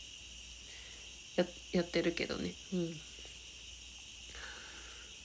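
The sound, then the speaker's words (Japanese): Autumn insects at night chirp and buzz with a rattling "gacha-gacha" in a steady, continuous high-pitched drone, a dense chorus that runs the whole time while a person speaks briefly over it. “秋の虫みたいなんて今はガチャガチャガチャガチャって言ってるけど”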